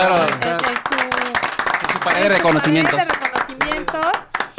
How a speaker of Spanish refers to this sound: ¡Aplausos!